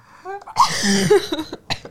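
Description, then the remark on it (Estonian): A single harsh cough bursts out, broad and noisy, followed by a rough throat-clearing rasp and a brief breathy catch at the end. “Sorry, köha.”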